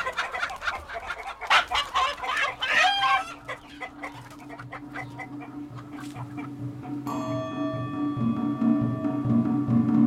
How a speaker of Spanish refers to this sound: Tienen que escuchar a nuestra gallina.